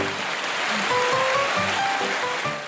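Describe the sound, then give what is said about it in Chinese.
A steady burst of dense clapping from several people during a program recording, after someone recites lines of classical Chinese poetry. It is a continuous crackling wash of sound that stays fairly even for under three seconds, with a few faint tonal sounds mixed in. “我的妈呀，快快快，来个掌声啊！”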